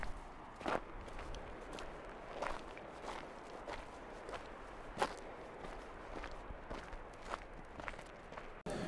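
Steady footsteps crunching on rough ground during a mountain hike, about two steps per second, fairly quiet, with faint outdoor ambience and no voices.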